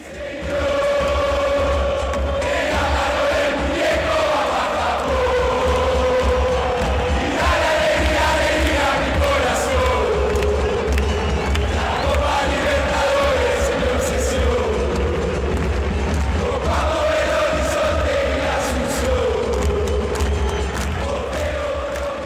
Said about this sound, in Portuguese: A música que a torcida do River Plate cantou em 2015